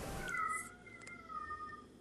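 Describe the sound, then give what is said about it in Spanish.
A cat meows in a long, drawn-out wail with a rising and falling pitch, clear, sustained for most of the moment with no one talking. “Sí, se escucha un gato.”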